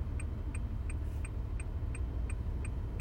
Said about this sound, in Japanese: で、えちょっと今車を運転しています。